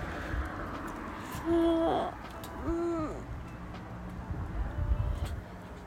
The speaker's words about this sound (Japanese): うぐいすがいいな